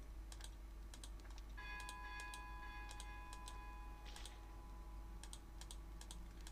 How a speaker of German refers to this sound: Ich klicke einfach viel. Ich klicke einfach ganz viel.